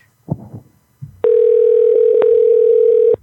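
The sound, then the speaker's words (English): A telephone dial tone hums steadily and loudly for about two seconds, a flat, unbroken mid-pitched drone, before a prank call. Brief handset clicks and fumbling sounds come just before it starts. “please prank call my friend.”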